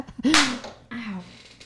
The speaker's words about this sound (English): She just slapped her knee.